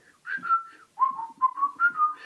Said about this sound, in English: you know I was whistling to myself the um,